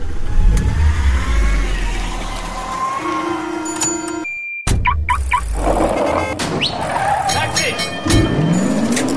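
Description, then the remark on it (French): A car engine revs loudly, its pitch climbing and falling, cuts off abruptly for a split second, then roars back with more revving and a rising whine toward the end. “Voiture. Moto. Voiture.”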